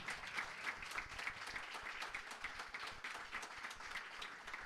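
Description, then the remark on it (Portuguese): An audience applauds loudly and steadily for the Lord Jesus, a dense wash of many hands clapping at once without pause. “Aplauda mais forte ao Senhor Jesus, amém?”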